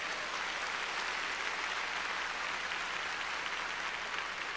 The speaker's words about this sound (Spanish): Los que lo reciban, denle una ofrenda de palmas al Señor.